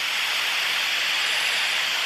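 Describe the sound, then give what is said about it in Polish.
A hurricane sound effect, wind of 117 km/h or higher, roars in a dense, steady rush of hissing noise, loud and unbroken for two seconds with little rise or fall, and no voices. “No i to jest ostatni rodzaj wiatru. To jest huragan.”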